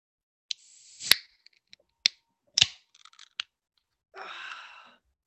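A real beer can being opened: several sharp clicks and a crisp pop with a short fizzing hiss, followed near the end by a softer, longer hiss. No one speaks.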